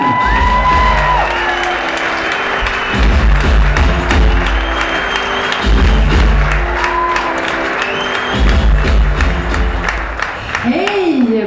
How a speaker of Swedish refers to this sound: Med TV-succéer som Grotesco, På spåret och Guldbaggegalan bakom sig är hon här för att leda Gyllene hjulet 2019 ikväll. Ge henne en rungande applåd. Här kommer Emma Molin!